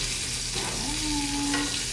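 Butter sizzles steadily in a frying pan, a continuous crackling hiss, with a brief high squeal from the pan or a utensil partway through.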